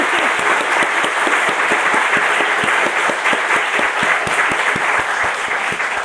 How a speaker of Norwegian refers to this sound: Og ja, tusen takk. Det føler jeg fortjener en sånn applaus. Ja, det er fortjener en applaus.